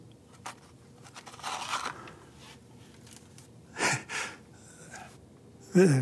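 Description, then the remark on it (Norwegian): A closed, taped-shut cardboard box is shaken and handled, its loose contents, which sound like teeth, rattling in several short, scratchy bursts, with soft rustling and faint breathing in between. “Men den er teipet igjen, da, men det, det høres ut som tenner.”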